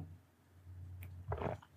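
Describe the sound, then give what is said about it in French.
A quiet sip of coffee: a faint click, then a short wet slurp and swallow lasting a fraction of a second over a low, steady hum, with no talking. “Désolé, petit ASMR de gorgée de café”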